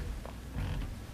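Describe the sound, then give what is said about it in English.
A low, grainy creak of a knee joint, lasting about a second and swelling briefly in the middle, fairly quiet with no one talking. “That was the chair. That was my knee.”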